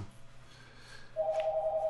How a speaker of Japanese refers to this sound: あじゃあ電話も鳴りましたんで、うんじゃあこれで